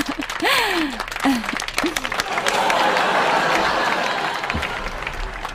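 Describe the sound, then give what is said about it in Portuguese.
A group breaks into applause, dense steady clapping that fills the whole clip, with a few vocal whoops or calls sliding over the opening seconds. “É um grande avanço. Aplausos.”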